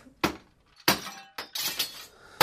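glass window being smashed

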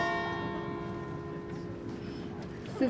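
church bells ringing

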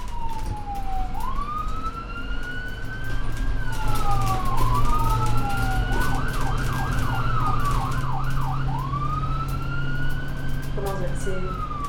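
ambulance sirens wailing

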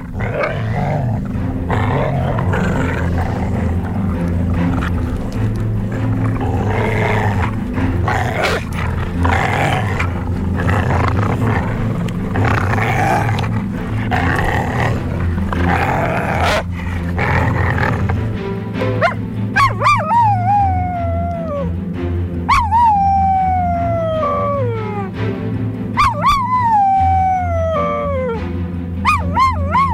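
dogs barking and howling

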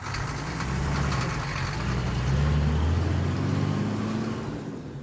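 bus driving past

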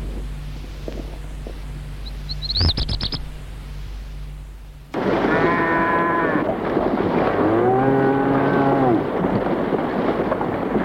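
cows mooing

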